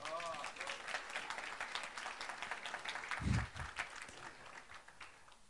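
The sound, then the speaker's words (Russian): A crowd applauds steadily for several seconds, a dense crackle of many hands clapping at an even level, with a brief low thump partway through. “Поддержим их, да, нашими аплодисментами?”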